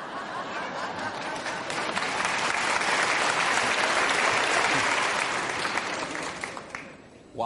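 A large audience applauds steadily, a dense wash of many hands clapping that holds strong for several seconds before tapering off at the end.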